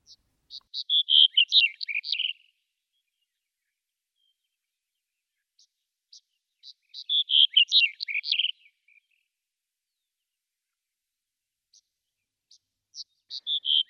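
A songbird perched on the top of a plant branch sings bright, high-pitched phrases of rapid chirps and trills, repeating a similar song about every six seconds with short silent pauses between, and no talking.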